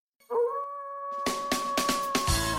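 A wolf lets out a long, loud, steady howl that rises at the start and then holds one pitch, while a series of sharp, noisy bursts joins in partway through.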